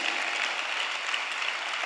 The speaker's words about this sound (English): If you are not clapping, Satan has possessed you or has even taken over a part of your life.